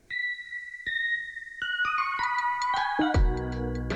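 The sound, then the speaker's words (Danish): A short electronic jingle for the show Venskabt, of bright, chiming synth tones stepping through a melody, building in layers and ending on a fuller, bass-heavy chord. No one speaks over it. “Nu kommer der en jingle.”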